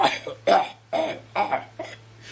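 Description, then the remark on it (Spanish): A series of five loud, harsh coughs in quick succession, each a sharp burst with brief pauses between, with no talking over them. “Así que se decidió toser y toseó pero bien fuerte el soldadito.”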